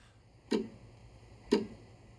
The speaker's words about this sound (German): also wenn jetzt im Hintergrund ständig die Uhr ticken würde